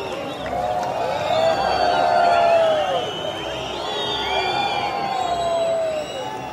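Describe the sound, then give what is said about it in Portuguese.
A large crowd boos and whistles continuously at José Sócrates as he gets out of his car on Portugal Day, 10 June 2010, with shrill, sliding whistles rising and falling over a dense roar of voices that stays loud throughout. “convido-os a revisitar uma vaia num 10 de junho.”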